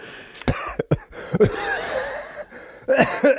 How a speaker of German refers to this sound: Gott, da, da habe ich mir ja schon hier an meinem Hustentee verschluckt.